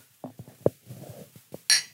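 Some soft knocks and handling clatter lead to a single bright, ringing clink of glasses in a toast near the end, fairly loud.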